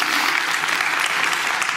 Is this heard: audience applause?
yes